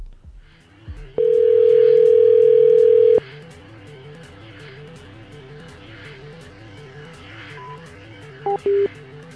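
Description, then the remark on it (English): A loud, steady telephone dial tone hums for about two seconds after the called party hangs up, then fades out; two short beeps follow near the end over a faint, rhythmic background. “And they hung right up.”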